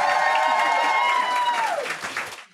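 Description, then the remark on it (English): An audience claps and cheers for Joe Swash and Stacey Solomon, a dense wash of applause with a held, whoop-like tone riding over it that drops away near the end as the clapping fades. “So please raise your glasses, don't spill anything, put your hands together.”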